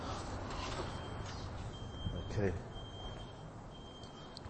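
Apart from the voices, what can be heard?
alarm beeping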